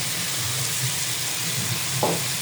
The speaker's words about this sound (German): Okay, und da kommt jetzt noch der Sesam dann drauf mhm. und dann mhm. in die Pfanne.